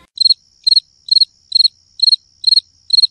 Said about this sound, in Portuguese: Barulhinho de grilo, bacana. sabe? Aquele cri.